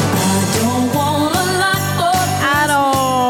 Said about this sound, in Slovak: veď to je tá naša najobľúbenejšia vianočná, že keď už ju počuješ 25. krát, aj keď otvoríš chladničku s vianočným šalátom, tak ti ostane zle.